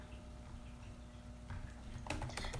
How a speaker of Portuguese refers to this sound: eu tava digitando isso agora.